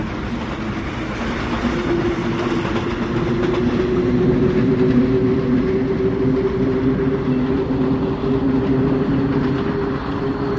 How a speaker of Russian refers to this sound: Электричка покачивается на бестыковых плетях рельсов, постукивает, минуя стрелочные переводы, шипит пневматикой дверей на остановочных платформах и снова разгоняется.